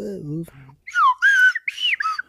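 A brief low voice, then a slide whistle plays a short pop melody in loud, swooping high notes: a few sliding phrases that bend up and down between held tones.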